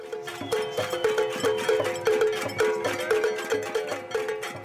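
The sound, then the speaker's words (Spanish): A crowd banging pots and pans in a cacerolazo in parks and on balconies in several cities of Colombia during a national strike, on Thursday the 21st: dense, steady metallic clanging with many overlapping ringing hits in a fast, insistent rhythm, fairly loud, with no voices heard. “Al final de la jornada del jueves 21, la gente salió a los parques y balcones de varias ciudades del país a golpear cacerolas en rechazo a una imagen de vandalismo que estigmatizaba el paro en las noticias de esa noche.”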